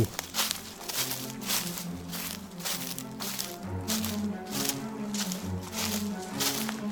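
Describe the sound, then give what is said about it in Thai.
Steady footsteps of a woman carrying a tin of water as she walks from a canal crunch along at an even walking pace, each step a crisp, gritty burst, while a low, sustained musical drone plays underneath throughout. “เห็นผู้หญิงแต่งตัวอย่างที่พันโชดเล่ากำลังหิ้วปีบน้ำเดินมาจากคู”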